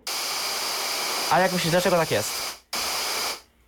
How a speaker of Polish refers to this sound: Teraz, jeżeli przekręcę to maksymalnie w lewo, będzie słychać szum.